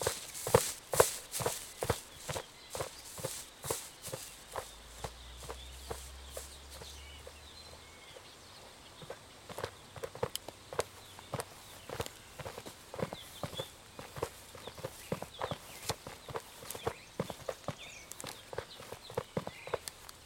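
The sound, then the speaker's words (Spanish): Boots crunch steadily on an earth trail during the last stretch of a mountain hike, a brisk, regular rhythm of gritty footsteps with a low rumble partway through, no voices. “Sientan la tierra crujir en sus botas.”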